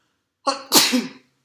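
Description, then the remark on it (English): A single loud sneeze: a brief harmonic intake followed by a sharp, breathy burst that fades within about a second, with silence before and after. “bless you.”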